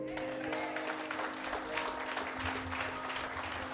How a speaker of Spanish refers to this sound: Si va a aplaudir, aplaude fuerte.